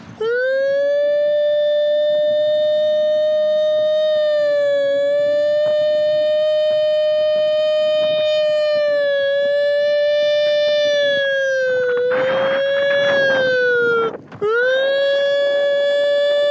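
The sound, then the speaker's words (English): A man riding a bike while wearing tactical gear loudly imitates a siren with his voice, holding a long wailing tone that dips and rises gently, broken by one short pause near the end, with some rushing noise underneath. “Here he is making siren noises while riding a bike and wearing his tactical gear.”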